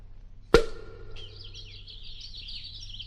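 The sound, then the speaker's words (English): A sharp pop like a cork pulled from a bottle, then a steady stream of high, warbling nightingale chirps twittering continuously, with no talking. “These nightingales' tongues aren't well seasoned at all. They're still chirping.”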